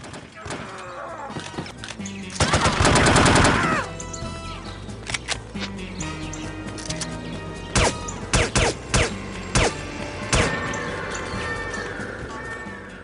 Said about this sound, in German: Also das klingt na, wie ein Shooter so klingt, mit viel Schießen und mit schreienden Gegnern und so weiter. Und gegen Ende hat man auch gehört, da wurde ein Alarm ausgelöst.